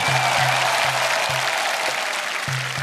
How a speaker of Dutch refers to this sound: Applaus en vuurwerk. Eindelijk, na jaren onderhandelen, mag Kroatië bij de Europese Unie. Het is groot feest op het centrale plein in de hoofdstad Zagreb, met traditionele optochten en muziek.